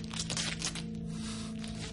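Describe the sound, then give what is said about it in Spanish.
Adhesive tape being pulled and torn off a roll to gag a man after a sock is put in his mouth, a harsh crackling rip that surges in uneven bursts over two seconds, with a low steady hum underneath and no voices. “Frank le pone un calcetín en la boca y lo amordaza con cinta.”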